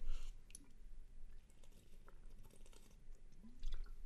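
Someone drinking water: wet mouth noises and a couple of soft gulps over a low rumble, with no talking.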